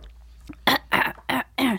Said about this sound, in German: Ja, ja, jetzt, wo du es gesagt hast, hatte ich schon direkt das Bedürfnis, mich zu räuspern.